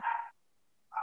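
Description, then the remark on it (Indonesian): A dog barks twice, with a short sharp bark, then a brief pause before a second bark. Both are clear, with no one talking. “secara basic ini suara anjing gue kedengeran nggak”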